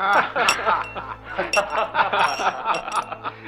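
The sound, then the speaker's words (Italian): Glasses clink together repeatedly in a bright, crowded toast proposed by the local fascist party boss of Pistoia, the sharp chimes ringing out over a lively murmur of voices and scattered laughter. “A proporre il brindisi era stato il ras del fascio di Pistoia.”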